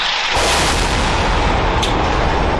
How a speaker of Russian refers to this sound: ВВС Израиля продолжают бомбардировки жилых кварталов Газы. Э, здесь, здесь вот взрывы. Причем мощно.